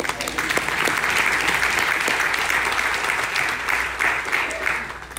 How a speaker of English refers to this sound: Give us a hand clap.